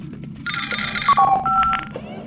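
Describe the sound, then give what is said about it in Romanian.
An electronic incoming-message alert for a message on channel 3 rings out: a bright warbling tone followed by a short run of stepped beeps, fairly loud, over a steady low background rumble. “Ai primit un mesaj pe canalul 3.”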